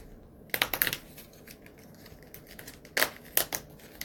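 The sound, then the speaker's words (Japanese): A door of a 2022 paper advent calendar, the top door in the fourth column from the left, showing Santa Claus on a sleigh, is pried open on December 9: a quick cluster of crisp papery clicks and tearing, then two more sharp snaps a few seconds later, moderately loud with no talking. “サンタクロースがソリに乗っている窓を開けたいと思います。”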